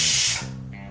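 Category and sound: household object, pressure cooker whistle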